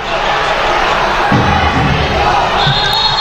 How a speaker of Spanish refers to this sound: La mirada al reloj de David Pisonero también anima la Peña Vidasotarra.